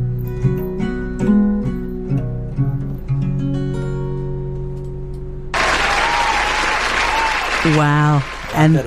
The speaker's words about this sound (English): applause at the end.